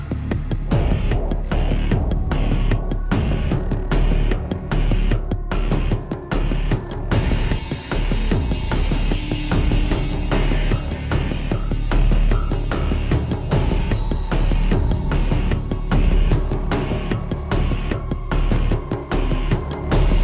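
A loud industrial electronic rock track plays without pause, with heavy pounding beats, thick distorted low end and dense, gritty synth layers filling the mix.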